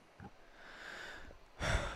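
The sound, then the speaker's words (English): A breathy yawn: a soft drawn-in breath rising into a sudden loud, airy exhale near the end, with no talking. “I'm yawning but the, already.”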